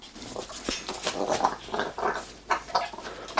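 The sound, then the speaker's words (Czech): A parrot growls and squawks while swinging on a knot, in a rapid string of harsh, raspy bursts, loud, with brief gaps between the calls and no talking. “Papoušek začal řádit.”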